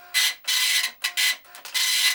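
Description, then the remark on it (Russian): A dot matrix printer prints in a series of loud, buzzing, rasping passes, each broken by brief pauses as the head moves back, with no voices. “И еще, пацаны, у меня был матричный принтер, который по сути своей недалеко отошел от печатной машинки.”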